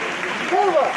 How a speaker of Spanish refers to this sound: aplauso a esa saeta al Santísimo